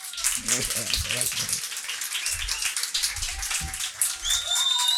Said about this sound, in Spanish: para el que pido un fuerte aplauso.